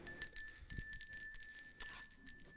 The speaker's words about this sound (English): Has anyone ever rung the Salvation Army bells? Anyone? Raise your hand if you've rung these bells. Do you know that today you can start to sign up to ring these bells.